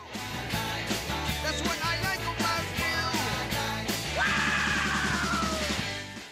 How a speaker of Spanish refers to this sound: Uy, qué grito.